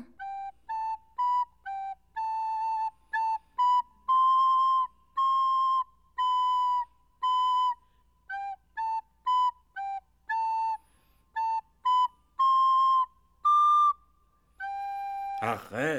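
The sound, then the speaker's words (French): A clumsy little tune played on a flute, a string of short, uneven notes and a few held ones, fairly loud, ending with a brief burst of noise. “Vous voulez que je joue un petit air de musique et la bulle va s'ouvrir.”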